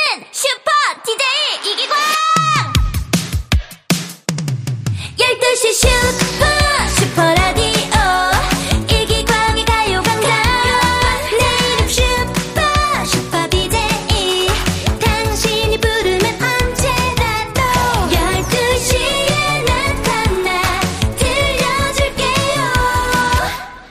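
A hip-hop track with rapped vocals over a steady, punchy beat; a sparse few-second intro gives way to a loud, dense full mix that keeps going.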